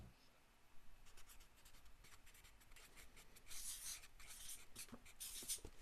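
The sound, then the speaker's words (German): Pens scratch steadily across paper in quick, irregular strokes as quiz players write down their answers, fairly quiet, with faint scribbling bursts continuing throughout and no one speaking. “Stifte weg und wir fangen mit Guess an.”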